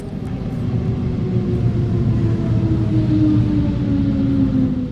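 Train station ambience at Bahnhof Örliken: a steady, loud low rumble of machinery with faint humming tones that slowly drift in pitch, continuous for the whole stretch, with no voices.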